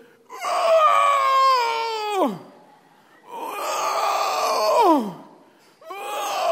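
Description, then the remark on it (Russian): A voice imitates a thin camel's strained groaning as it struggles to stand up with two heavy riders on a desert tour: two long, loud, harmonic moans that each slide sharply downward at the end, then a third begins, alone with no talk. “И на этого худого верблюда двух толстых армян посадили. И этот верблюд пока вставал.”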